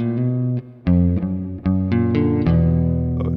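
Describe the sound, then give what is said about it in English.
A distorted electric guitar plays a short, simple bluesy riff centered on E minor and A minor with bluesy passing notes, a string of sustained, gritty notes and chords with sharp plucked attacks and slight bends, loud and without talk. “Yeah, centers around E minor, E minor, and A minor, and then a little bit of uh, these bluesy passing notes, like uh,”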